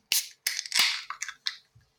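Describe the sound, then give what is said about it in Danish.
A beer with 8% alcohol being opened: a handful of sharp, hissing bursts and clicks in quick succession, with no one speaking. “Jamen, øh, skal vi skal vi åbne?”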